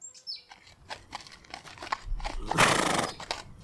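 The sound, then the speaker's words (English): A horse whinnies loudly, its neigh rising in a bright burst, while hooves clop unevenly underneath and faint birds chirp in the background. “Horses. Where are the riders?”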